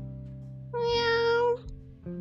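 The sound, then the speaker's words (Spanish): A single meow from a red female cat, clear, lasting under a second, set against a low, steady background hum that continues before and after. “una gata roja de afilados dientes.”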